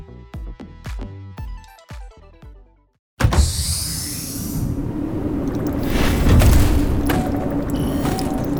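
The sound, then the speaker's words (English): A few plucked musical notes cut off abruptly, then the sliding doors of Biosphere 2 close behind its eight original inhabitants with a sustained hermetic hiss and mechanical whoosh, loud, rumbling steadily to the end. “As the doors closed behind them with a hermetic hiss, the eight original inhabitants of Biosphere 2 beheld a paradise of early 1990s engineering.”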